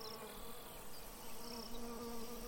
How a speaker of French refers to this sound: Une mouche. Un moustique. Une coccinelle. Je ne sais pas, j'ai pas eu le temps de le voir. Mais tous ces petits insectes volants,